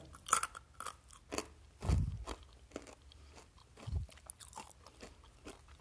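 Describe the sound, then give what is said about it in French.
Crunchy sweet peanuts being chewed, a steady series of crisp, crackling bites and grinding crunches with a few deeper thuds, no talking. “On va goûter une, on va voir ce que ça fait.”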